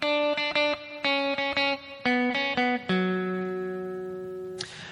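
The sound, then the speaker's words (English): A short melodic phrase, the song's vocal melody, played on a bright, sustained synth-like instrument: a quick run of rhythmic notes ending on a long held tone that slowly fades, with no voices. “And these notes are a type of melodic voice leading that's basically uh, following the vocal melody that sounds like this.”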